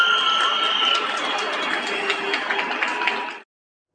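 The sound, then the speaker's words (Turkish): Steady applause and cheering for health workers echo from balconies in Turkey, a dense wash of clapping with whistles and shouts ringing over it, then cutting off abruptly. “Yurdun dört bir yanından alkış ve destek sesleri Hadi yükseldi.”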